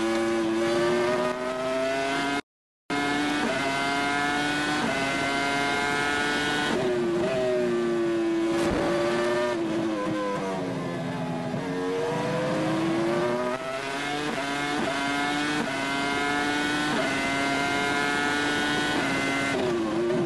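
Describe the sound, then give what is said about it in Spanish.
A race car engine screams continuously from an onboard camera perspective, its pitch rising and dropping through gear changes and corners, loud, with a brief cut of silence near the start. “Venga, pues os pongo la onboard.”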